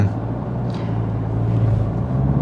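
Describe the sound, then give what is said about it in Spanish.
A steady low engine rumble of cars passing by outside fills the whole stretch, with a brief hiss of tires midway and no voices. “Jolín, ¿cuánto coche?”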